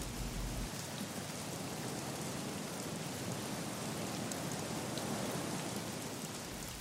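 Steady rain falls outdoors at a dacha (country house), a dense continuous hiss of drops pattering on surfaces, even in loudness throughout with no voices.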